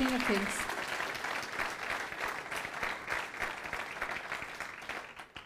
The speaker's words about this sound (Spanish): Puede darle ese fuerte aplauso al Rey de Reyes.